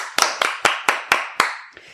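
Applause made of six or so sharp, evenly spaced claps in a quick steady rhythm, with a fainter final clap trailing off; no voices.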